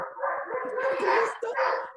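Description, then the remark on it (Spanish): Dogs yelp and whimper in a steady, high-pitched run of overlapping cries, fairly close and continuous for the whole moment, with no talking over them. “Pero bueno, por ahí se oyen unos perritos, no sé por qué.”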